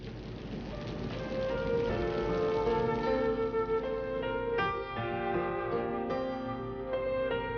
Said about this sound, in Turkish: Ah, yağmur birazdan kesilir. Sanmam. Bütün gece yağacağından eminim.